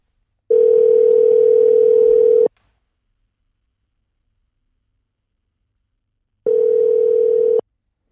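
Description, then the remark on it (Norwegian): A telephone ringback tone of a call from Norway to Patrice Bernier sounds twice, a steady electronic buzz of about two seconds, then a long pause of silence before the second ring, clear with no voices. “vi hadde en telefonprat med Patrice Bernier.”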